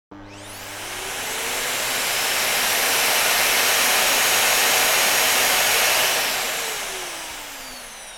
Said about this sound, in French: Qu'entends-tu Est-ce le bruit d'un aspirateur ou d'une voiture On entend le bruit d'un aspirateur.